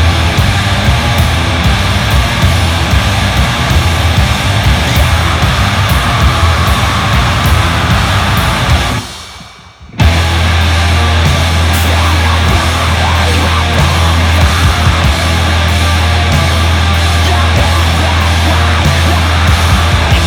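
A loud, dense song plays from a record, a wall of distorted noise with possible shouted vocals. It cuts out briefly midway, then returns over a heavy, sustained low bass drone.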